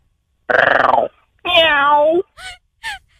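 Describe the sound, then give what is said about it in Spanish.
A voice imitates a cat purring with a short, loud, rapidly pulsing rolling sound, then follows with a longer drawn-out tonal whine and two brief chirping squeaks. “Está ronroneando, según vos ya me dio miedo”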